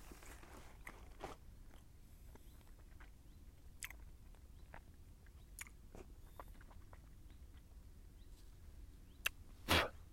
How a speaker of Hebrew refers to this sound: הכיס הראשון. הצלחתי לדחוף לעצמי בין השיניים מלא.